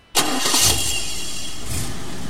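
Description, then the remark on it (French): A car engine turns over and catches abruptly at night, then settles into a steady idle with a brief rev partway through. No voices. “Alors la nuit, Zanz a fait des tours en voiture.”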